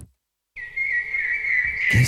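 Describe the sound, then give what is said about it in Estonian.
A short whistled jingle introducing the "keskkonnaminutid" (environment minutes) segment: one steady, high, bright note held for over a second, wavering only slightly, then cut off by a brief burst of noise. No talking. “oota, mul on keskkonnaminutid sound ka.”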